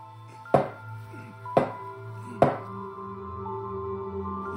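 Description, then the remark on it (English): Three firm knocks of an empty beer bottle banged gently on a table, each a short hard thud with a brief glassy ring, spaced about a second apart, with no voices. “He banged the empty bottle on the table gently.”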